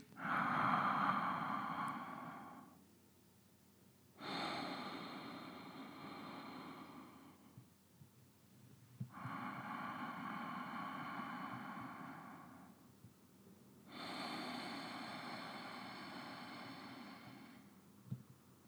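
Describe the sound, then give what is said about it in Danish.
Four long, slow ocean breaths with the mouth open and jaw relaxed, alternating in and out through a slightly tightened throat, each a raspy, hissing rush lasting a few seconds with short pauses between, steady, with no talking. “Så du kan godt høre, der er sådan lidt øh, Darth Vader over det her.”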